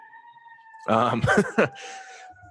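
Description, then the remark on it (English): A faint siren drones as a steady, high tone throughout, holding beneath a brief stretch where someone murmurs and laughs, then continuing alone at the end. “I apologize if you can hear that siren in the background.”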